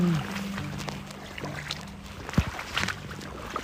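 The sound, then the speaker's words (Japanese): Water sloshes and laps in shallow standing water in a flooded field, with soft irregular splashes and one sharper slap, over a low steady hum in the background. “うわこのチャプチャプ音聞こえますかねすごいですよ”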